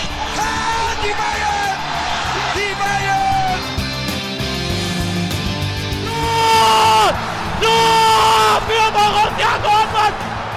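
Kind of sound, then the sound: crowd, stadium crowd cheering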